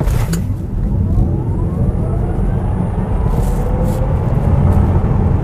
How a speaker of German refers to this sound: Ja, wie ihr hört, hört ihr nicht so wirklich viel, aber es dreht sich natürlich um ein wirklich sehr besonderes Auto, ein wichtiges Auto vor allem. Es geht heute um das Tesla Model 3.